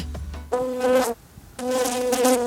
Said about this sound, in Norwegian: Det er bare summinga. Det er ikke selve flua i rommet.